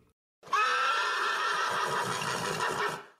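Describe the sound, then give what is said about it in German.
A single loud horse whinny rings out, a sustained, quavering neigh lasting nearly three seconds before cutting off, with no talking. “Da heißt es cool bleiben, wenn besagter Schimmel wiehert.”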